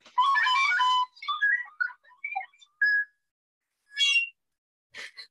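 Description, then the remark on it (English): A taped-up recorder from second grade played clumsily: a loud, held opening note, then a run of short, wobbly, uneven notes, ending with two breathy, shrill squeaks after brief pauses. No one speaks. “tell me about this recorder that I so eloquently butchered in the opening”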